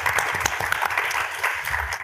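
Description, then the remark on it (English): An audience at a Difference Engine event at a state university in Los Angeles claps for the mayor, a dense, continuous patter of applause at moderate loudness that holds for about two seconds before cutting off abruptly. “Um, if we could give him a round of applause, that'd be fantastic.”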